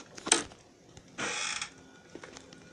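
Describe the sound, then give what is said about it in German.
A sharp metallic click of a lock turning as a door is unlocked, then a short scraping rush as the door swings open quickly, followed by a few faint mechanical clicks; no voices. “Schließ, die, schließ diese Tür schnell auf.”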